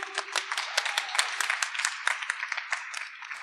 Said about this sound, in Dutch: Applaus voor Sander Bloem!